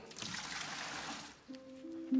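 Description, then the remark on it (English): Water gushes and splashes from a tap over people's faces for about a second, a hissing rush, then cuts off and gives way to a brief, steady tonal whine. “That water run over, running over their faces, St. Peter, made the sweetest sound that had reached my heavenly ear since I left the earth.”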